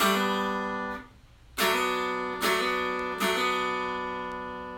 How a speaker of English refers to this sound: So having that little thing, in fact, I make it a habit now of doing uh, G major 310 chords, B minor 210 chords, and I love to just bring that middle string in a little bit late with a hammer on.